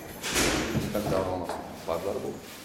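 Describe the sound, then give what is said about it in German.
A history book slides out of a crammed bookshelf in an apartment with a brushing scrape and a soft knock, followed by rustling, while a voice murmurs faintly in the background. “nimmt ein Geschichtsbuch heraus”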